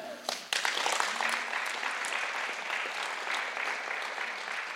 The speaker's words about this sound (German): Ein Applaus für die.